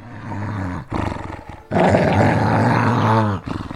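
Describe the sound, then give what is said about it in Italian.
A dog on a farm growls aggressively at arriving orphanage workers, loud, deep rumbling snarls in three bursts separated by short pauses, the middle one long and intense. No one speaks. “Quando gli addetti all'orfanotrofio arrivano alla fattoria vengono affrontati dal cane.”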